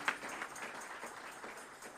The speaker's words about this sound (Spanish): aplausos hermanos, a la presencia de Dios que está en este lugar. Amén.